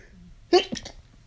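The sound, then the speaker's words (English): A single abrupt sneeze bursts out, loud and sharp, trailing off into a couple of brief breathy gasps before going quiet. “So hold on, I gotta sneeze.”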